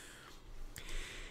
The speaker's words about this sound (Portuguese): Nossa, deu uma fungada monstra aqui, desculpa.